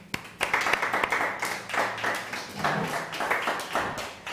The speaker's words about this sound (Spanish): fuerte aplauso.